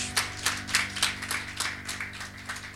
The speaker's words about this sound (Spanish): Denle un aplauso al Señor.